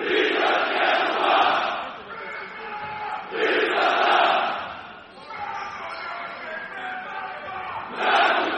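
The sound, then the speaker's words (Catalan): A roaring arena crowd at a basketball game with a Lithuanian atmosphere and rituals, loud and sustained, swelling into rhythmic waves of chanting and cheering roughly every few seconds with a dense mass of voices underneath. “M'ha vingut de gust fer el silenci perquè veieu quin és l'ambient que hi ha aquí eh, en aquest eh, partit.”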